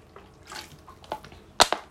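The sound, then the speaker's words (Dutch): A quiet sip of water, soft liquid slurping followed by two short, sharper gulping clicks near the end. No one speaks. “Even weer een slok nemen van mijn water.”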